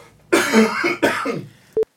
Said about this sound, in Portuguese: Tu quer tossir? Isso, lindo. Coitado, morrendo de vontade de tossir.